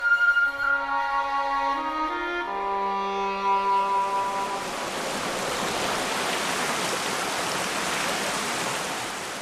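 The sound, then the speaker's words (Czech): Steady rushing water swells up and takes over, a dense roar like water pouring over a weir, after a few seconds of sustained tonal humming that fades beneath it. “No a tady u tohle jezu, u tohohle jezu, tomu říkáme, eh, že jsme, my si říkáme jezmeni, jo?”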